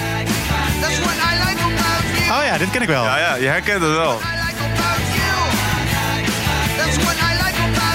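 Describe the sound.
An energetic 1979 rock song by an American band plays loud and steady, with driving drums, guitars and a shouted vocal line, while a man talks briefly over the music.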